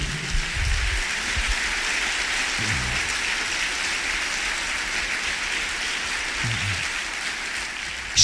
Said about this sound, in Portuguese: Você pode aplaudir e glorificar o Senhor por algum momento?